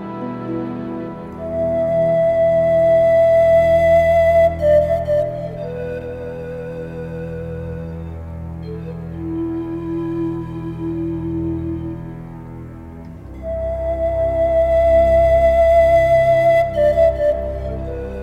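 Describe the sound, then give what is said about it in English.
A breathy pan flute (panpipe) in a film score plays a slow, expressive melody of long held notes over warm, sustained orchestral pads, fading to a softer passage midway before the flute returns. “We can immediately hear the expressive nature of the pan flute.”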